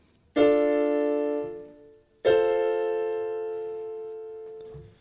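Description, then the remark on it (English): Two piano chords played in a higher register, D minor then F major, each struck once and left to ring and slowly fade, with no talking. “If I play a D minor to F major chord on the piano, it sounds like this.”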